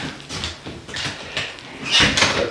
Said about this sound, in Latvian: Durvis ciet, jā. jā, durvis ir cieta.